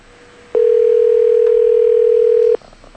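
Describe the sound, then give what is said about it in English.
A single steady telephone tone sounds loud for about two seconds as a call is placed on a traditional telephone after a Skype connection fails, then cuts off abruptly, leaving faint background hiss with no talking. “Let's go to the traditional telephone then.”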